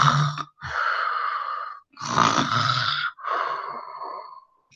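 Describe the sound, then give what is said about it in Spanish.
A voice imitates the loud snoring of a wolf lying asleep in a garden: several long, raspy breaths in and out with brief pauses between, exaggerated, with no words spoken. “El fuerte sonido de sus ronquidos llamó la atención de un cazador que pasaba por allí.”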